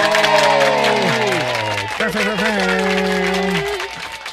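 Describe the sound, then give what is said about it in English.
An applause and cheering sound effect, played for the announcement that flag football is coming in 2028: a crowd applauds with a steady wash of clapping while cheering voices rise and slide down in pitch, loud and sustained for about four seconds before easing off slightly. “Did you have applause when I announce what's coming in 2028?”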